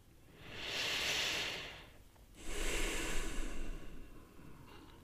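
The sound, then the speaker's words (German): Two slow, deep breaths: a long airy inhale swelling and fading, a short pause, then a fuller, slightly rougher exhale trailing off, with no talking. “Wir atmen etwas tiefer.”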